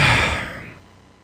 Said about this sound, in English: is there anything else you want to talk about then? Because I hear yawning.